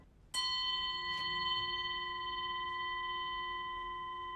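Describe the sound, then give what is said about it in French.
A Tibetan horse bell is struck once and rings out with a clear, steady metallic tone and bright overtones, sustaining and fading only gradually over several seconds, with no talking. “tout ce qu'on voit ici sont des cloches de cheval”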